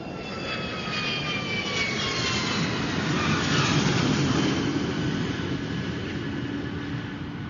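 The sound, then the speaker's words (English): A jet airplane roars steadily, its engines giving a broad rumble with whining high tones that slowly sweep downward as it comes in to land in England. No voices. “A blizzard blew up shortly after the plane landed in England, knocking out the airport's power supply.”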